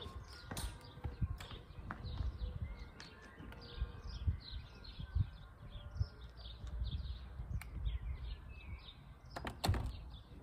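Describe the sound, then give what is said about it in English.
Many birds chirp and twitter continuously outdoors outside a building entrance on a slightly breezy, not sunny day, a busy mix of short calls, with low rumbling handling noise and a few sharp knocks. “As you can hear, there's quite a few bird sounds.”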